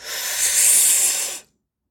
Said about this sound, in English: so, in essence, what you're doing is you're going to take 30 breaths deep, like this, like, and then you let out just like that. You're not going and breathing out really hard. You're just breathing in real deeply,